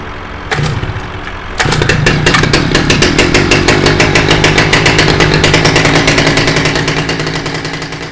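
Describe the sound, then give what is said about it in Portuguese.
A loud chainsaw roars steadily alongside a rumbling tractor engine on the land, with rapid rhythmic mechanical pulses throughout; the noise kicks in briefly, then surges to full strength and stays intense. “E na outra esquina, um barulho enorme. A serra, o trator na terra e o gato só dorme.”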